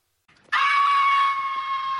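A loud, shrill animal screech bursts in after a brief faint lead-in and holds as one steady, high-pitched wail, easing slightly toward the end. No one speaks.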